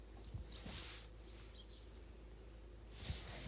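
A bird calls loudly and repeatedly in a series of bright, high chirps and trills, over a low background rumble with no talking.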